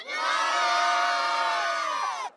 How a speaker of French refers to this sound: La foule a répondu présente pour apercevoir le pape et notamment ses plus grands admirateurs euphorique